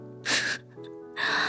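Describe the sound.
In a told story, a voice imitates a rabbit's huge sneeze over a carrot pudding: a loud, breathy burst of air, a brief voiced hum, then a second forceful hissing blast, all within about a second and a half.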